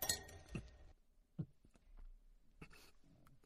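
Glasses clink together in a toast, a bright ringing knock near the start followed by a few lighter clinks and faint clatter, with no talking.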